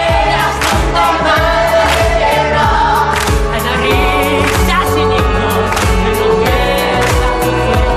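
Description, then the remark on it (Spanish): A song from 33, a musical about the life of Jesus Christ, plays at full volume, with a steady, driving drum beat under layered sustained instruments and melody, continuous throughout with no one talking over it. “Bueno, suena así, este es uno de los temas.”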